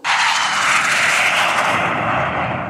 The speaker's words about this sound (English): And after a series of final checks, we're cleared for takeoff.